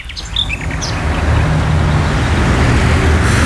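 A vehicle rumbles past on a road, its broad roar swelling quickly and staying loud to the end, while a few bird chirps sound briefly at the start.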